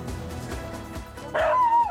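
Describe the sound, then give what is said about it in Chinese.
Hokkaido dog puppies, about one month old, yipping while playing excitedly in the snow in Hokkaido, Japan: soft, rhythmic low thumps give way to a sudden high-pitched, drawn-out yelp with a whiny, tonal edge, loud and alone near the end. “打开狗屋的门，四只毛茸茸小狗便一个个跑出来，兴奋的在雪地里玩耍。”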